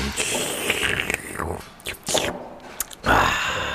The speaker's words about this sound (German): was schlürfst du da so laut und ekelhaft